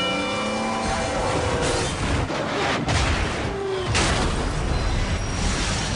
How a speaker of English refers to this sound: on the tracks, we have Bull, a million-pound freight train that takes a mile to stop